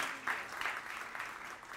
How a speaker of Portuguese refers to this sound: Fique de pé nesse momento. Aplauda o Senhor Jesus, glorifica o Senhor Jesus.